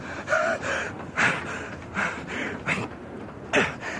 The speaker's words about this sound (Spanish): Y Gilbert Cooper logró aferrarse a la barandilla del vagón de cola y subió a la plataforma tragando aire a bocanadas.